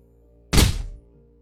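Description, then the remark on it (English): A single heavy, dull punch-like thud as someone punches a dead bear, loud, with a short fading body of sound before quiet returns. No talking is heard. “I'm as far away as I can be because you're punching a dead bear, and I think you're a little unhinged.”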